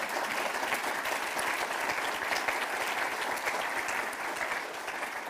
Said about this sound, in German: Sie können mich mit Applaus unterbrechen, das akzeptiere ich.